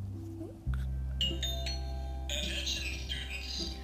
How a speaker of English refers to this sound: Better hurry, says the bell. Don't be late.